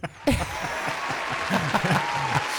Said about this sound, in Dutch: Wacht, applaus erbij. Applaus.